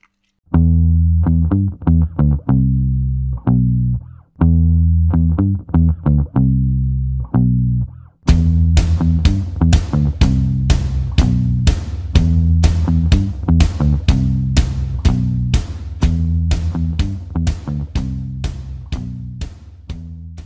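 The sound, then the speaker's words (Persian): A loud music track played as a break between discussion segments: a few seconds of choppy, sustained electronic chords, then a steady, driving beat kicks in and continues to the end, with no talking. “فکر میکنم که حالا بعد از مرور دفاع و دروازه میتونیم یه استراحتی بدیم بریم یه آهنگی گوش کنیم برگردیم هافبک و مهاجم و با بچه ها پیگیری کنیم”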